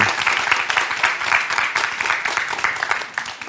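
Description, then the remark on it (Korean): Sustained applause from a lecture audience as volunteers come forward to take part, a dense crackle of many hands clapping at a steady level for the whole stretch, with no voices standing out. “여러분 박수 한번 주십시오.”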